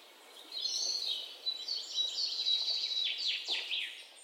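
Bright, high-pitched bird chirps chatter rapidly and continuously for a few seconds, several overlapping calls at a steady moderate volume, with no voices present.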